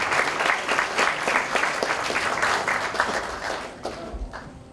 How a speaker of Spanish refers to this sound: yo les pediría fuertes aplausos para que llegue hasta nuestro compañero. Gracias.